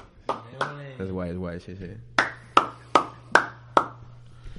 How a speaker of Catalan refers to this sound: ¿Usted eh, cómo mola con el aplaudito? con eh. con el reverb. Con el reverb.